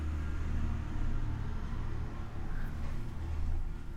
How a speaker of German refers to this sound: Einen Moment. Jetzt fährt ein Traktor.